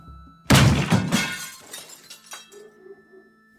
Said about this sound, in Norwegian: Som de fleste andre i eneboligene her skulle de på jobb neste dag men det er noe helt annet enn hverdag, som foregår i en av de små røde sjøbodene nede ved vatnet. Plutselig singler det i glass.